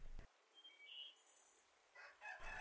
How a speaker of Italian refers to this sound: La giornata inizia con il canto del gallo e il villaggio si sveglia al suono leggero del vento tra le foglie verdi degli alberi secolari.